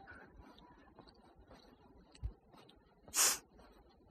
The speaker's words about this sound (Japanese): この鼻をすする音がちょっとうるさいかもしれないですね。顔の前にあの手をかざして、鼻をすする音が入らないようにしたんですけども、意味ないかもしれないですね。